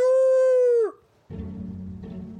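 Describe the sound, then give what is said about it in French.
A person imitates a wolf howl: one loud, steady vocal tone held for about a second before sliding down and cutting off, followed by a short pause and a low, rumbling background. “Et à la fin de ce livre, vous n'aurez qu'une envie, c'est de pousser un grand cri de loup.”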